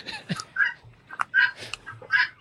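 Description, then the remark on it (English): Guinea hens calling with harsh, grating cries, four or five loud bursts in an uneven rhythm, with some fainter background clatter and no talking. “Those are guinea hens, and she knows how irritating guinea hens are to me, and she did that on purpose.”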